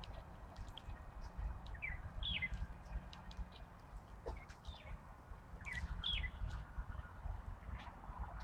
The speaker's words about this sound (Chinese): 这上头这里头有一只白头鹎，它在叫唤。你看那只，嗯， 嗯， 这也是一只公的。 那也得找一个那个， 显眼的地儿啊，让母的发现它。